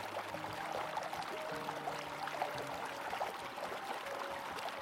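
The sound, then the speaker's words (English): Steady rushing water of the Merced River tumbling and splashing around snow-covered boulders, a continuous roar with bright gurgling and faint tonal hums underneath, no voices. “Using some snow covered boulders sitting sturdy as the river cascades around them makes for a gorgeous lead in of subject matter.”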